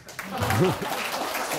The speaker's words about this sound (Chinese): 哦，这时候应该有一点掌声。